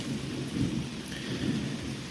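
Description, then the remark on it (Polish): Steady rain patters down while low, rolling thunder rumbles continuously underneath as a storm approaches, with wind blowing, heard from the porch of a house among meadows in the Beskid Niski mountains; a dense storm wash with no voices present. “W roli uzupełniającej, a być może dodatkowej, deszcz, który w tle sobie gdzieś stuka, zaraz będzie burza, a ja siedzę sobie na ganku w Beskidzie Niskim, w domu na łąkach. Deszcz pada, wiatr wieje, a ja nagrywam dla Państwa odcinek”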